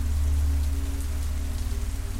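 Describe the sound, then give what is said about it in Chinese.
Steady rain, falling after thunder and lightning on the evening of a Halloween parade, pours down in a constant hiss, with a heavy low rumble underneath and faint scattered drop patter on top, unbroken for the whole stretch with no voices. “靠也是这样子，因为他加入的太迟了，只是换到了一小部分糖果，然后就因为雨势呢，被迫折返回家。”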